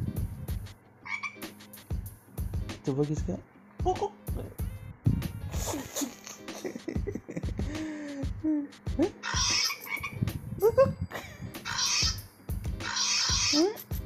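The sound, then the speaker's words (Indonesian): A voice imitates a frog, making a string of short, rhythmic croaking sounds, with brief bits of talking mixed in between the croaks. “Kalau kodok bunyinya gimana?”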